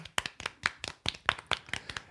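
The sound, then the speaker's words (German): A brief burst of hand clapping from a couple of people applauding themselves for reaching 20,000 subscribers, with quick, sharp, slightly uneven claps in a steady rhythm, at moderate loudness with no talking. “Applaus für uns selbst.”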